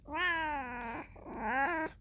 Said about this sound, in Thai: เดี๋ยวเดแมวมันอยู่หน้าโทรศัพท์พอดี